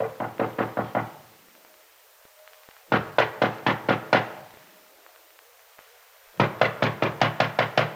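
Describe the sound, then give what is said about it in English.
Three bursts of firm, rapid knocking on an office door, each a quick series of about five to eight raps, with short pauses between as the knocking grows more insistent. Fairly loud, no voices. “At first, he doesn't hear the knock at the door.”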